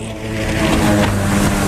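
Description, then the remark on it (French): A jet ski engine revs loudly, a steady buzzing drone with strong harmonic tones that swell slightly in pitch and volume, with no voices over it. “Le son qui me tombe le plus sénat sur la terre, c'est une moto marine.”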